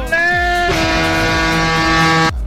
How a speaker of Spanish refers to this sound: tenías que conseguirme una bocina de estas para el. para el sábado bocina de estas gordas para el sábado, para tener allí, para mandarle bocinazo.